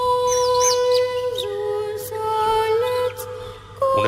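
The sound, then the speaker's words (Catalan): Young voices of a boys' choir (escolania) hold steady sung notes while others add high, swooping chirps and trills that imitate birdsong, the calls bursting in repeatedly over the sustained chord. The choir sings 'El cant dels ocells' while moving through the interior of the Romanesque Cathedral of La Seu. “La Catedral Romànica de la Seu s'ha omplert fins la bandera per escoltar i veure una escolania mòbil que es desplaçava per l'interior de la catedral, com aquest moment quan cantaven el cant dels ocells, simulant el so dels ocells.”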